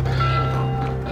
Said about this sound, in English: That's the alarm bell.